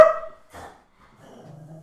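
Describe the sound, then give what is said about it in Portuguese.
A dog barks sharply at the start, then gives a second shorter bark, followed by softer whimpering or whining sounds. Moderately loud, with no talking. “Peço desculpa, hoje o cão lembrou-se de estar aqui a ladrar.”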